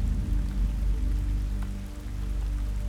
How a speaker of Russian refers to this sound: Вскоре сорвался дождь.